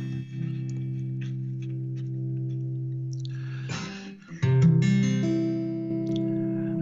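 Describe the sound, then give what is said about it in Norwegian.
An acoustic guitar, brought out to accompany a Christmas song, rings out sustained chords, then briefly quiets before a louder strum brings in a new chord that lets ring to the end, fairly loud with no voices. “Jeg har eh, tatt fram gitaren.”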